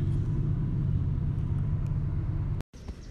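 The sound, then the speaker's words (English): A train rumbles past with a heavy, steady low roar and a rough mechanical texture, holding loud for several seconds before cutting off abruptly and leaving a quieter hum. “I'm going to let this train pass, but I'm going to come back to you.”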